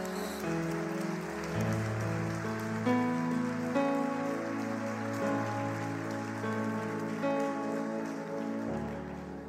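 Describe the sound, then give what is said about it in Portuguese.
An audience applauds the Lord Jesus in a steady, dense patter for several seconds while sustained keyboard or organ chords hold underneath; nobody speaks. “Aplauda o Senhor Jesus nesse momento.”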